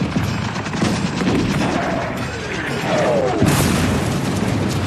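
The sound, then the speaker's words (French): Dense, continuous Great War battlefield din of shrapnel shells, a mix of lead balls and powder, exploding in the air: repeated loud booming explosions and crackling bursts overhead, forming a chaotic barrage with no pauses. “Les plus terrifiants sont les shrapnels, un mélange de billes de plomb et de poudre qui explose en l'air.”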